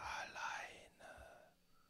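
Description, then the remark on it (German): A breathy, eerie whisper drifts in two airy bursts, hissing and soft with no clear words, fading out toward the end in an otherwise quiet space. “Ich, äh, ähm, ähm, ich höre zwar nichts, aber du antwortest doch nicht einfach irgendwelchen Stimmen, die zu dir flüstern, die doch, aus dem Nichts kommen.”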